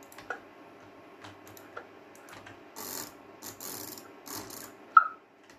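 Irregular mechanical clicks and clacks from a keyboard and mouse, fairly quiet, with a few bursts of rapid tapping and one sharper click near the end; no one speaks.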